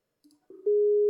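A telephone tone while calling someone back: a few soft blips, then a steady, loud mid-pitched beep that holds unbroken for over half a second before cutting off with a click. No one speaks.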